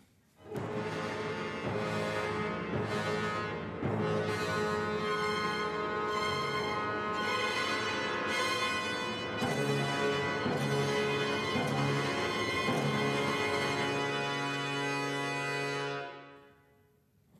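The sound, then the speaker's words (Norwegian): The Trondheim Symphony Orchestra plays ominous, dark tones at a concert of music by Lera Auerbach in Olavshallen, Trondheim, during the Trondheim Chamber Music Festival: loud, dense sustained chords shifting every few seconds, holding steady for about fifteen seconds before dying away, with no one talking. “disse illevarslende tonene kunne publikummet i Olavshallen oppleve i går kveld.”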